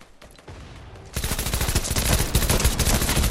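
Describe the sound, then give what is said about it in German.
After a quiet second, loud rapid-fire video game gunfire erupts and continues in a dense, rattling burst of automatic shots until the end, with no talking. “Nein, ich treffe natürlich keinen Schuss.”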